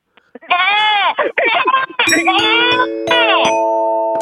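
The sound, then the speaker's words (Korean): A newborn goat kid bleats loudly, a rapid string of high, quavering cries with short breaks, ending in one long drawn-out call, after a few faint clicks at the start; the hungry kid is calling for its mother. “이거는 갓난애기 아니야 갓난애기. 애기가 배고파서 엄마를 찾는 소리예요. 아, 아 염소가.”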